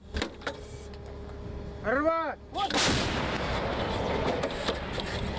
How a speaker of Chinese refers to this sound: 法制凯撒车载型一百五十五公里自走炮，砰的一声，震撼力十足。